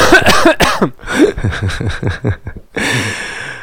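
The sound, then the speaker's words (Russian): A person coughs several times in quick succession, loud, with short harsh bursts followed by a longer rasping cough at the end. “кашляни три раза, если у тебя пистолет рядом с виском.”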